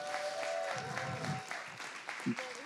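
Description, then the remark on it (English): A crowd gives a group of actors a round of applause, a steady, dense patter that holds for a few seconds, with some tonal hum and murmuring mixed through it. “Let's give these actors a big round of applause.”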